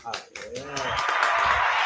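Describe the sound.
A short burst of applause swells up just after a voice speaks, becoming a steady, dense wash of clapping that holds at an even loudness until the end.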